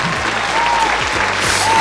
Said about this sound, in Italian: Applauso!